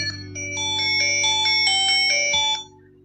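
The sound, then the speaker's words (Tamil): A phone ringtone for an incoming call plays a bright, repeating electronic melody of quick chiming notes for a couple of seconds, clear over a low steady hum, then stops abruptly. No one speaks. “sorry ஒரு phone வருதுங்க பார்த்துறேன்”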